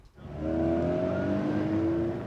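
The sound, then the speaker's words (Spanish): A car engine revs up loudly and holds a steady, rising harmonic whine for a couple of seconds, prominent with no talking over it. “El tráfico a esta hora en la ciudad de Manizales.”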